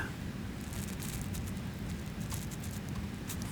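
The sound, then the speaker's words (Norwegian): Meltwater from melting snow trickles and runs steadily, with scattered drips pattering over a continuous low wash. The sound is fairly quiet, with no voices. “I våre stumme tanker falt plutselig lyden av rennende vann.”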